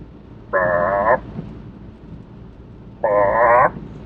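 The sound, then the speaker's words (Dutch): Two drawn-out croaks of a toad at night, each lasting just over half a second and separated by a long pause, with a buzzy, wavering, mid-pitched tone that stands out clearly against a quiet background. “Maar ik denk, zit er nou een pad bij mij?”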